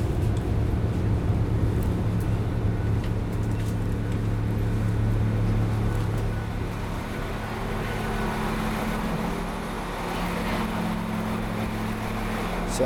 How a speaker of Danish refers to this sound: er jeg nået til Aarhus, og så hvad man måske kan høre mere præcist øh, Aarhus Hovedbanegård.